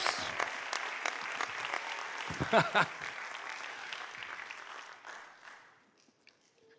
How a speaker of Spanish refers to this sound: Y si va a aplaudirle, hágale con todas sus fuerzas.